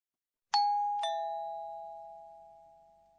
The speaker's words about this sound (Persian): خب این صدای زنگ هستش در زبان ژاپنی یه واژه برای توصیف اون داریم بیم پوم. وقتی که یک شرکت کننده در مسابقه جواب درست میده برگزار کننده اون مسابقه میگه پون.